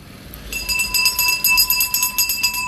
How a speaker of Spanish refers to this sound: Ahorita va a pasar aquí el camioncito de la basura.